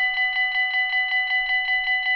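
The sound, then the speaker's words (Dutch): An electronic bell rings continuously with a rapid, even trill, its bright, buzzy tone pulsing several times per second. It is clear and steady throughout, with no voices. “Het, het weet je, zo'n elektronische bel is eigenlijk ook gewoon wel mooi.”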